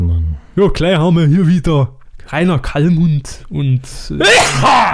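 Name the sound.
sneeze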